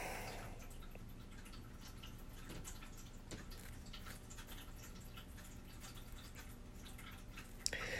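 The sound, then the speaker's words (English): Water drips and patters steadily in a shower in the evening, scattered droplets landing over a constant low rush of running water, fairly quiet, with no one talking. “I finally got you into that shower this evening.”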